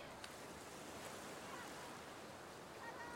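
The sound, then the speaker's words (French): Ocean waves wash onto the fine-sand beach at Palm Beach, with the sun reflecting in the waves, in a steady, continuous roar of surf, with no distinct single breakers standing out and a faint breeze mixed in. “Tandis qu'elle contemple les reflets du soleil dans les vagues, Pamela pense aux dernières paroles de John.”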